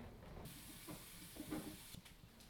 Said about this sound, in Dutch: ik ga heel even mijn handen wassen.